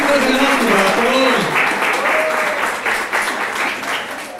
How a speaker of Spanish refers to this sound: Exacto, denle un aplauso, vente por aquí.